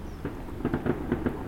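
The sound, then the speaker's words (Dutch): A handful of gunshots, probably fired into the air, go off in a quick, irregular burst, each crack muffled and dull, over a low steady background rumble with no one talking. “Het zijn kogels die worden afgevuurd, waarschijnlijk in de lucht geschoten weer ergens.”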